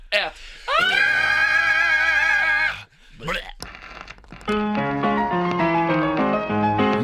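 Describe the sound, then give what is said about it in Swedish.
A loud, sustained power metal scream holds a high pitch with wavering vibrato for about two seconds, followed by a brief shorter yell before bright music kicks in. “Avsluta med ett power metal-skrik. Skrik hur högt du vill, skrik hur mycket.”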